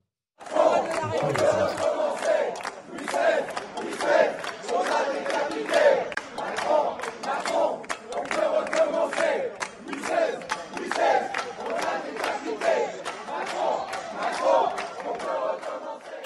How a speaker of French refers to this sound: Et ces individus vont chanter, et tendez bien l'oreille bien sûr, je le dis aux auditeurs, Louis XVI, on t'a décapité, Macron, on va recommencer. Alors, on voit vraiment … scander euh, euh, ce, chant-là. On écoute.